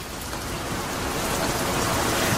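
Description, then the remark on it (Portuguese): A rain sound effect: steady rain pours down in a dense, continuous hiss, holding at a constant moderately loud level throughout with no voices or pauses. “Põe já o efeito sonoro.”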